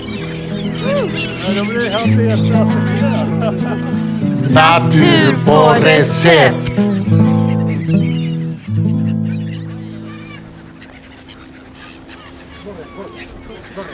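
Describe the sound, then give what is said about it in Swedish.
A dense chorus of bird calls, honking and clucking overlapping continuously and loudly, with a person speaking briefly over the din. “Hur känns det att stå här mitt i fågel... fågelhavet?”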